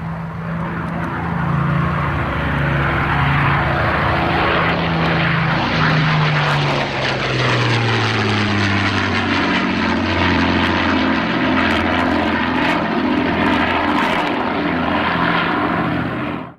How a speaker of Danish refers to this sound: I hører Mosquito jager bombefly. Den 31. oktober 1944, ja, der bomber 25 øh, øh Mosquitos i en ret så vellykket aktion øh, Gestapos hovedkvarter øh, i, i Aarhus Kollegium 4 og 5 på, på Aarhus Universitet.